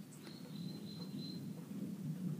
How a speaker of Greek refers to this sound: πίπτουν κεραυνοί και είναι και, και ο καιρός βροχερός και έτσι δρυμής γι' αυτό παρακαλώ, αν και εγώ ευχαριστούμε από το άκουσμα και το περιβάλλον αυτό του χειμώνος, ε, με συγχωρείτε λέγω, αλλά δεν μπορούμε να ρυθμίσουμε τον, τον καιρό